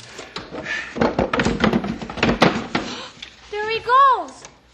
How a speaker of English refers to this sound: Now you pry on that side of the box, and I'll pry on this side. All right. All right. Now, yeah, that's it. There.